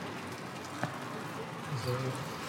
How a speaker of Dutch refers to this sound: Ja, behoorlijk regen. Ja, dit gaat behoorlijk regen. Het zijn wel grote druppels.